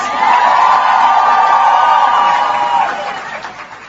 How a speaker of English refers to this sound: So ask yourself, just what are these ignoramuses cheering about?